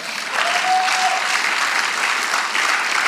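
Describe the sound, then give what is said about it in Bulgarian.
A church audience claps steadily for a few seconds, a modest, lukewarm, even patter of applause at moderate volume with no cheering and no voices over it. “О, благодаря за посредственото ръкопляскане.”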